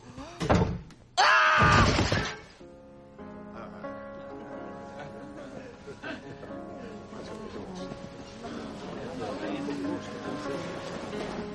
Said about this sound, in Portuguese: Fecha essa porta aí!